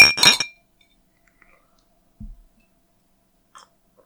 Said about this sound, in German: Dann will ich jetzt aber mal anstoßen. Ja, gute Idee. Ich auf das, mit. Ja, okay, auf das, was es wert ist. Auf das, was es wert ist.